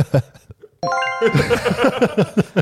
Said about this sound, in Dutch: John kreeg een appje binnen.